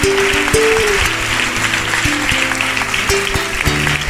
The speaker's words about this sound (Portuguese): Vamos aplaudir mais o Senhor Jesus. Vem para cá. Oh glória, vamos aplaudir mais o Senhor, vai ser uma bênção.